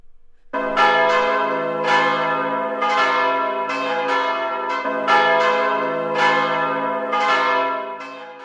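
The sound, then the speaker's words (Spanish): Church bells ring loudly at the opening of a program's theme tune, a series of overlapping rich metallic strikes about once per second, each tone sustaining and decaying into the next, with no voices present. “Pues la sintonía de nuestro programa sabéis que comienza con el sonido de unas campanas.”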